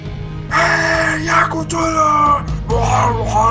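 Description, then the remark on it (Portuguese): A crowd of people jumping at the foot of pyramids yell and scream together in overlapping bursts, with drawn-out wails and shouts layered over a rumbling background din, continuing without a pause for a few seconds. “Vocês vêm, olham aos pés das pirâmides, as pessoas pulando e gritando.”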